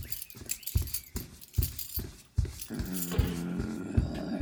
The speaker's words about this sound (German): Oh, ich höre Gorillaschritte. Da kommt ein Gorilla rein.